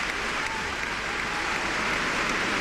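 A crowd of attendees applauds steadily at a pelota fronton, a dense, even wash of many hands clapping at once that holds at a constant loudness throughout, with no voices rising above it.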